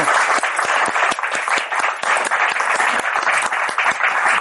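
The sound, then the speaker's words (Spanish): Steady audience applause welcoming an author at a book presentation forum at Trocadero, a dense patter of many hands clapping at an even, loud level throughout with no voices over it. “Un aplauso.”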